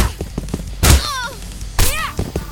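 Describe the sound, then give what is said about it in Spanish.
Two bursts from a video game: each starts with a sharp, heavy boosted kick impact, followed by a character's short gliding shout, over faint game sounds. “Y cuando escuchamos ese grito, es una patada impulsada que hace que los enemigos”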